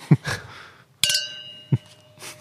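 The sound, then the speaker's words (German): Wine glasses clink together in a bright, ringing toast before the wine is tasted, the tones lingering briefly, with a few soft thuds and rustles around it. Clear, no talking. “Gut, dann probieren wir mal, oder? Ich würde ja. sagen, zum Wohl. Zum Wohl, ja.”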